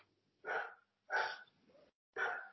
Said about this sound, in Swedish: det var min hund ja, alltså. Nu vet alla lyssnare att jag har en hund också.